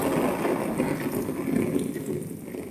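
Heavy summer rain drums densely on an umbrella, recorded from underneath the umbrella, a steady, loud wash of countless rapid patters with no pauses and no voices.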